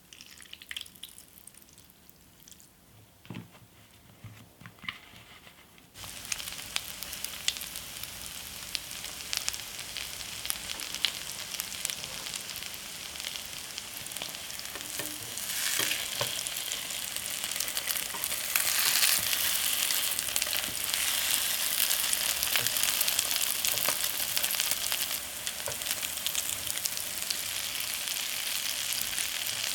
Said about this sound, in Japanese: 今朝はフレンチトーストのおいしい音色それではお聞きください